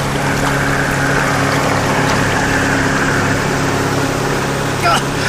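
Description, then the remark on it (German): A steady, loud engine drone with a low hum rumbles throughout as a motorboat passes directly by, making big waves, over constant washing water noise; a brief splash near the end. “Das Motorboot kommt direkt an uns vorbei. Achtung, das gibt große Wellen.”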